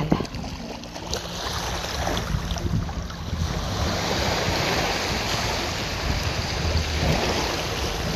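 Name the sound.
ocean waves rolling in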